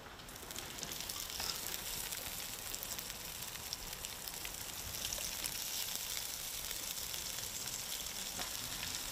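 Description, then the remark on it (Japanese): Bacon sizzles steadily in a Dutch oven over a campfire, a dense, even crackle of hissing fat that stays constant throughout, with no voices. “あこれはいい匂いがしてきた焚き火と音楽ベーコン入れます”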